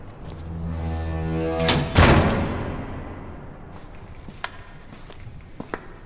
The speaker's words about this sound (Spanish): Cierra la puerta.